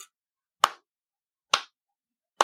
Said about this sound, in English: I am clapping.